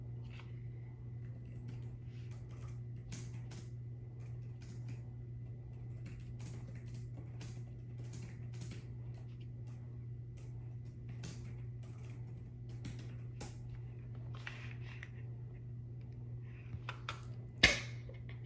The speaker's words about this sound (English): you like that keyboard ASMR.